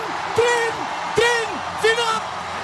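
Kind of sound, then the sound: crowd, arena crowd cheering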